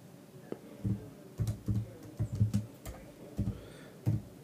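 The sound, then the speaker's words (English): Irregular bursts of clicky keystrokes on a computer keyboard as someone looks up stats, a dozen or so quick taps with soft low thumps, fairly quiet, with no one talking. “Um, so you hear me typing.”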